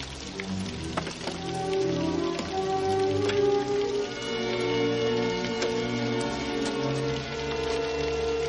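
A heavy nighttime downpour hisses steadily throughout, dotted with sharp drop ticks, while sustained low tones hum underneath the dense, fairly loud wash of rain falling by a marquise's palace.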